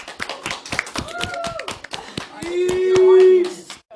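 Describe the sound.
A brief round of applause: sharp, uneven handclaps from a small group, with rising whoops and a sustained cheering voice mixed in before the clapping thins out and stops.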